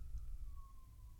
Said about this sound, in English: sorry about the sirens. I live in the in the slums.